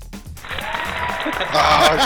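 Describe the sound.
A burst of applause sound effect, inserted from the built-in effects of a Google recording tool, that builds and grows louder toward the end, with voices and a bit of laughter mixed underneath the dense clapping.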